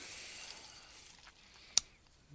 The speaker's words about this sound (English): The Four Loko Red. Okay, smells uh smells very sweet see, I'm going to just pour it out really quick.